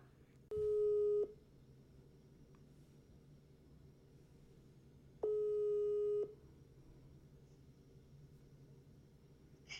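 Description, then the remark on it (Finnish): Two steady electronic ringback tones, each about a second long and roughly five seconds apart, sound clearly over a low constant hum while a phone call waits to connect. “Soitetaan eka Annalle mm. ja sen jälkeen otetaan puhelusta Riikalle”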